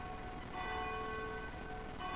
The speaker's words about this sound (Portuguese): Faltando 13 minutinhos para as 22 horas, toca o sino da Catedral de Nossa Senhora de Aparecida, a padroeira do Brasil.